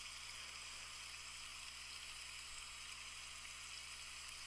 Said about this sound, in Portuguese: Tem uma baixa luminosidade, mas tem um barulho muito gostoso de se ouvir. Esse barulho de chuva. Essa água escorrendo pelo vidro da janela.